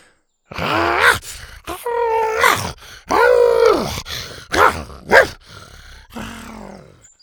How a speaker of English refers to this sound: Her triplets stood in front of her and roared at the warriors, jabbing their horns at the spears.